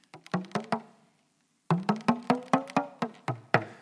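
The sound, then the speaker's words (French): Soft taps on a tam-tam drum: a quick run of four hollow, resonant strikes, a short silence, then a steadier series of about nine more, each ringing briefly before fading. “ça s'appelle le tam-tam de Massamba, l'éléphant montagne”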